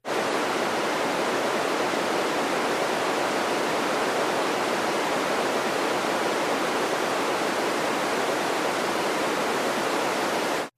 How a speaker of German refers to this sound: Und das geht 30 Minuten lang noch so weiter, nämlich das 30-minütige weiße Rauschen.